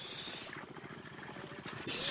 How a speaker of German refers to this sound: Und dann, ein helles Zischen kündigt ihn an, kommt Florante, der Mann aus der Tiefe